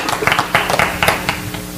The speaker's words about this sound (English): So, if we give them a nice, warm applause, nice round of applause as they come up.